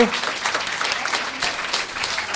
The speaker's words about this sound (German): Einmal aufstehen, bitte. Oh. ein Applaus, ein Applaus für die Gewinnerfrage.